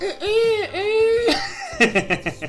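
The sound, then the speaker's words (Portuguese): A rooster crows in a long, drawn-out call that rises and falls, loud, followed by bursts of laughter from a few people. “um, galo, um galo cantando.”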